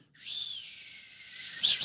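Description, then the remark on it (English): A person imitates a father's dinner-time call to his children, whistling a long, steady, high-pitched, piercing note without fingers in the mouth, holding it for more than a second before ending with a quick curling flourish. No one speaks. “Um, but my father used to have a, a, call that he would give to us at dinner time. And it was this whistle.”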